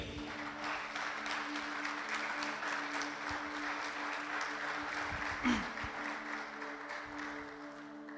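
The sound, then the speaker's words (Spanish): Steady applause from a crowd, many hands clapping in a dense, continuous patter at even loudness for several seconds, with a faint low hum beneath and a brief louder burst near the end. “Eso merece un aplauso, digo.”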